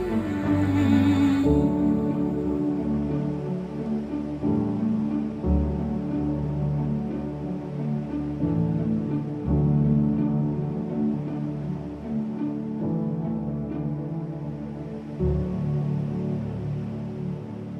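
A contemporary worship song plays steadily and fairly loud, with full, sustained instrumental harmonies and a bright shimmer at the start, continuing without pause throughout.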